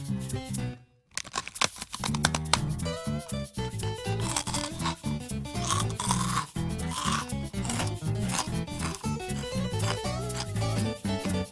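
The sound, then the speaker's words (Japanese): A rice cracker package being opened: loud, dense plastic crinkling and crackling with sharp tearing bursts, a brief pause early on, then steady rustling throughout, with no voices. “開けてみますよいしょ”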